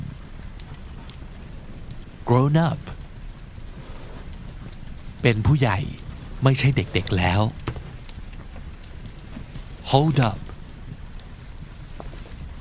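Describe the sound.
A fireplace crackles softly and steadily throughout, a constant low hiss with faint pops, while a voice speaks a few short words at intervals over it.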